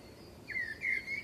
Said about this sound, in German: dann sehe ich jetzt hier zum Beispiel die Amsel und dann kann ich das mal gucken, ob das jetzt hier korrekt zusammengeflanscht ist, auch abspielen.